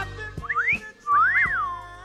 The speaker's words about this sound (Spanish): Cada vez que entra a la oficina, todas silbamos a la par.